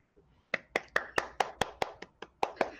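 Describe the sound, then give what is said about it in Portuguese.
Applause at the Roda de Conversa for a dialogue, made of about a dozen sharp, distinct hand claps in a quick, fairly steady rhythm, moderately loud, with no talking over it. “Acho que merece o aplauso aí por esse diálogo.”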